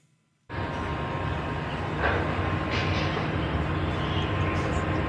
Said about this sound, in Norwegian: Dette her er lyden av en by med 26 millioner innbyggere. Hører du ikke noe, tenker du? Kanskje bare litt svak bydur og fuglekvitter? Det kan stemme. For i flere uker har Shanghai sine innbyggere måttet leve med svært strenge koronarestriksjoner.